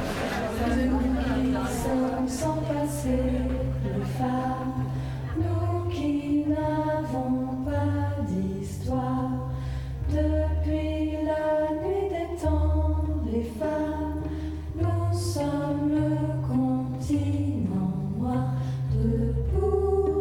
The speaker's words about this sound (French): Et on va se quitter avec euh, une autre chanson de circonstance en attendant le 14 juin, plus que 10 jours. Vous pouvez l'écouter peut-être en boucle.